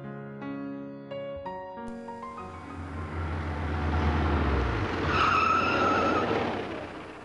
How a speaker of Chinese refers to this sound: 这时，一辆公共汽车停在了路口。